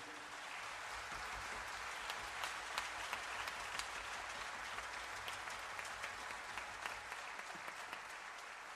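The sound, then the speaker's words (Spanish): Steady applause from an audience for the sound technician, many hands clapping at once in a dense, continuous patter that holds for several seconds with a few sharper claps standing out. “Entonces, un fuerte aplauso pido”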